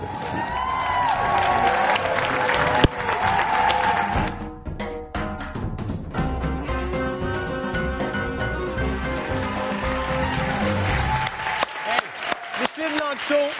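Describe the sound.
The audience of a French-language show applauds a guest steadily for about fourteen seconds, a dense wash of clapping with scattered voices and a tonal musical backdrop, loud throughout, thinning slightly toward the end.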